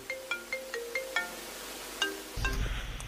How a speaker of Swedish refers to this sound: Men så händer det. Ett telefonsamtal.